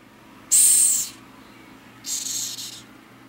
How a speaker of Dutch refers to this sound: het is een insect en het is een insect dat je liever niet hoort. Het is namelijk een sissende kakkerlak.